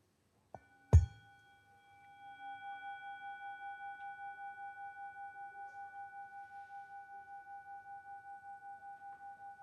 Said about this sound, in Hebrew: הפעמון הזה הוא פעמון טיבטי שהוא עוצר את המחשבות, ככה הם אומרים. תראו, אני אעשה פעמון, תנסו לחשוב, תראו אם תצליחו.